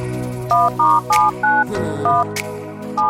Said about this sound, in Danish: så da jeg sidder på toilettet, så kommer jeg i tanke om, hvilken lyd det er, det her telefonnummer, det laver. Og prøv at høre her.